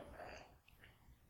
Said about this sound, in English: Bless you. That was an interesting sneeze. You're like trying to hold it in. Just let it out.